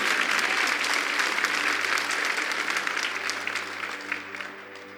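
A church audience breaks into sustained applause for the Lord, dense overlapping clapping that holds strong for several seconds before gradually tapering off near the end.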